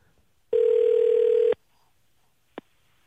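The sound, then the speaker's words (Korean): A telephone ringback tone sounds once while a phone call is being placed, a steady, loud electronic hum lasting about a second, followed by quiet and a brief faint click. No one speaks. “전화 한번 걸어보겠습니다.”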